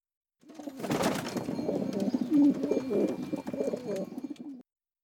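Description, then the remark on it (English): A trained pigeon that carries letters coos in a low, throaty, continuous burble of rolling notes, lasting several seconds with no one talking. “Pretty sure you just miracled a bird.”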